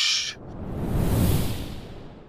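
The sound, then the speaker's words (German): A swelling whoosh transition effect: a brief bright hiss, then a broad rushing sweep that builds to a peak and trails off over about two seconds, heard alone without any voices. “So, jetzt kommt dieses geile Geräusch wieder. Wusch!”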